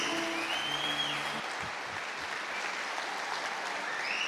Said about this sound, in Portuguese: Dá um forte aplauso aí para Jesus.